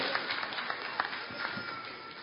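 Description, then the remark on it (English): An audience claps steadily, a dense patter of many hands at moderate volume that holds evenly for a couple of seconds with a few sharper claps popping out. “Can we clap for that, please?”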